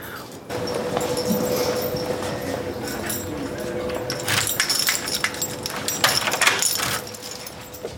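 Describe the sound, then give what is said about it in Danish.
Keys jingle and a lock clicks as a door is locked, with a cluster of sharp metallic clatters toward the end over a steady low hum. “Du låser døren? Ja, det gør jeg.”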